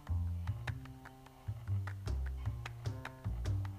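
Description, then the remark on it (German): In a video game, a character knocks on the player's door: a rapid series of sharp knocks repeats in an uneven rhythm over a low, steady droning tone with no voices. “klopft an, mein, an meine Tür.”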